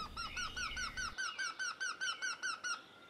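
A Eurasian wryneck calls a fast, even series of about a dozen nasal, whining notes, loud, with a low rumble underneath for the first second.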